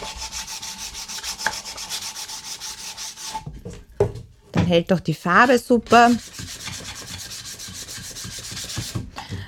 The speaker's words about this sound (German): Also am Anfang natürlich, die alten Kisten haben oft etwas äh, noch ja, scharfes oder unregelmäßiges. Man kann das dann schön glatt schleifen